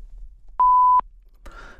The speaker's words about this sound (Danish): Velkommen til telefonsvaren. Indtal en meddelelse efter klartonen.